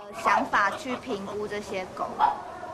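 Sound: dogs barking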